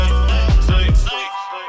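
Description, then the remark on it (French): A loud mobile phone ringtone plays, a bright tonal melody with three quick swooping pulses that stops abruptly partway through, leaving only a fainter tonal tail. “C'est quoi T'as ton téléphone qui, qui sonne euh, Non.”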